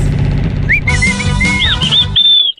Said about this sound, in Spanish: ¿Quién chifló?